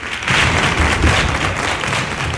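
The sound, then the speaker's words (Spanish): Loud, dense flamenco-style palmas handclapping by a group of invited flamenco artists in the gallery of the Parliament, greeting a law that declares flamenco of cultural interest; steady, with no voices standing out above the clapping. “La norma inscribe el flamenco como bien de interés cultural y ha sido recibida con palmas, baile y cante por parte de los artistas desde la tribuna Artistas Flamencos invitados en el Parlamento.”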